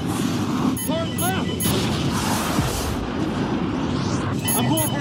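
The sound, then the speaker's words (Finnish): A missile strikes and explodes in a film, filling the scene with a loud, sustained roaring crash and rumble, while voices shout faintly beneath the din. “Oh shit, se osuu se ohjus.”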